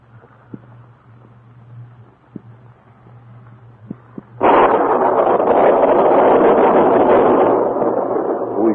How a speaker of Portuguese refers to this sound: estalar de uma trovoada, pôs o barata em pé de um salto. Mas não é possível. Uma tempestade.